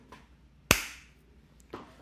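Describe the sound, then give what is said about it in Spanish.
One sharp, loud hand clap, made to sync audio recordings, rings out with a brief decaying tail, followed about a second later by a softer knock. No one speaks. “Voy a aplaudir para sincronizar mi audio luego y primero yo.”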